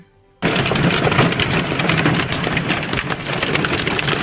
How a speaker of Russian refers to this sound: Град, град херачит!